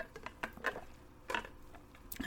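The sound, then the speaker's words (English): Someone takes a few quiet sips of water, with soft wet slurps and small mouth clicks spread across a couple of seconds, no talking. “okay, let me take a drink of water real quick.”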